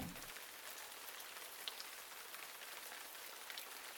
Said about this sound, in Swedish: Det har duggat i veckor redan och nu står regnet som spön i backen.